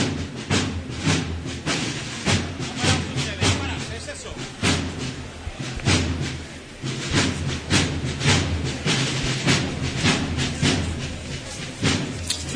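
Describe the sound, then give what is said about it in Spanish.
A marching band's drum cadence, a paso tambor by maestro Tejera, played in a procession accompanying the Virgin of the Immaculate Conception through the streets: loud, steady, evenly spaced drum strikes repeating throughout, with a dense, noisy wash of sound underneath. “Eh, así que vamos a seguir escuchando el paso tambor del maestro Tejera.”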